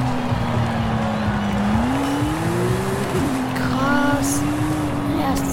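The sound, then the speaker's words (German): A car engine drones steadily and rises in pitch, then tires squeal briefly midway through as the car skids and crashes, before the engine settles back into a constant hum. “Unfall.”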